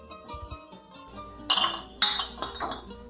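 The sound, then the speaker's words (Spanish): Glasses clink together in a toast between friends, three bright ringing chimes about half a second apart, fairly loud, after a quiet stretch of low background murmur. “Mejor brindemos, compadre.”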